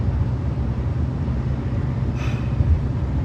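A steady, low rumble of highway traffic drones on without pause, with one vehicle briefly swelling louder as it passes partway through. No one speaks.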